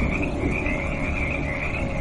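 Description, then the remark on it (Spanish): A dense, unbroken chorus of toads croaking, many overlapping calls forming a steady, loud rattling drone with a shrill trilling edge, no voices present. “No sé en qué momento me dormí, pero al despertarme todo el interior del vehículo estaba lleno de sapos.”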